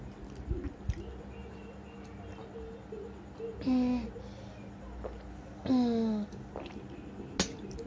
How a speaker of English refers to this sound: that feels so good. Drinking water after eating spiciness, that's good. That's that feeling is amazing.